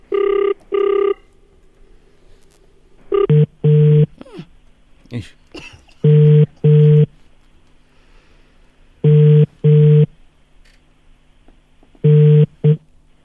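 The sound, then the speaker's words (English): An outgoing call's ringback tone from an early-morning wake-up call to a neighbour sounds in steady paired bursts, a double ring repeating about every three seconds, five times over, with faint shuffling and a brief murmur in the gaps. “All right, phone's ringing.”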